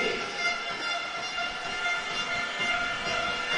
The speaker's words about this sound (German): Und was man hört, sind natürlich die Unicorns-Fans auf der anderen Seite, die wirklich zahlreich erschienen sind.